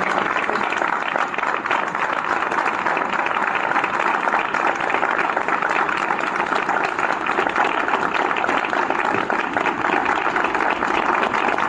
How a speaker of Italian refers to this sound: ma direi che hai iniziato alla grandissima, quindi un applauso per favore, ma enorme proprio.